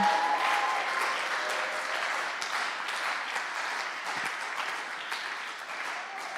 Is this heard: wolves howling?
no